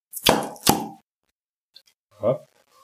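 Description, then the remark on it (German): Two sharp pops in quick succession as a swing-top beer bottle is flipped open, followed by a faint click and then a brief burst of speech. “Also man hat so gehört, mit Bügelverschluss.”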